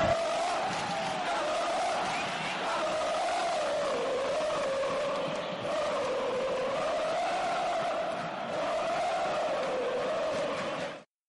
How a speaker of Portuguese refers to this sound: vou mostrar as vozes da arquibancada para vocês